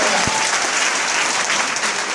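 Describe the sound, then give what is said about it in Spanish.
An audience breaks into steady applause for a networker, a dense wash of clapping hands that stays loud and even for the couple of seconds it lasts, with no voices standing out. “Un aplauso para el networker.”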